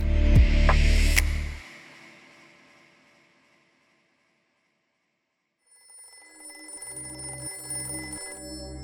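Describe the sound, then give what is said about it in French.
After a loud rumbling thud fades into silence, a telephone starts ringing as John Kennedy phones Marilyn Monroe, its bright electronic tone pulsing in quick repeated bursts. No one speaks. “Le jour suivant, John Kennedy téléphone à Marilyn Monroe.”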